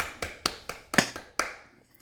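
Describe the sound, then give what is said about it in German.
A short run of about six sharp hand claps celebrating a passed final exam, quick and even at first, then slowing and fading out, with no voices. “Einmal, einmal klatschen.”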